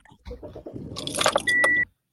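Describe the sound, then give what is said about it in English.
Keys jangle briefly, followed by a car engine cranking and catching, a steady whine holding for a moment before cutting off. Fairly loud, with no talking. “Someone's starting a car.”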